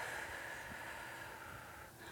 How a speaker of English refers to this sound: so you want to take a deep breath in through your nose, hold it for a short time, and then breathe out through your mouth